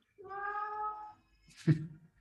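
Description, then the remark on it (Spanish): A cat gives a drawn-out, tonal meow lasting about a second, followed by a short noisy burst and a brief low vocal sound. It is clear, with no talking. “Sí, justo se metió el gato que...”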